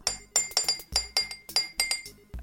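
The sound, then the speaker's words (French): A buzzer made of quick glass clinks: about ten bright, ringing taps in a rapid, slightly uneven run, high and chiming, fairly soft, with no talking. “Jean-Jack Black, ton buzzer.”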